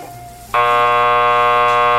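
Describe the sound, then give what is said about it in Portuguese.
A doorbell buzzes loud, a steady harsh electric drone that starts abruptly after a brief quiet moment and holds unbroken to the end. No one speaks. “Algumas horas mais tarde, a campainha toca.”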